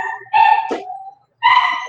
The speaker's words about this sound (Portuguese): Seguinte, a minha cachorra ela é meio emocional. Quando chega gente em casa, parece que ela tá torturando ela com ferro quente no olho.